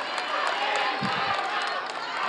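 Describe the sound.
An audience applauds the three presidential candidates, a dense, steady wash of clapping with crowd voices mixed in and a few low thumps near the middle.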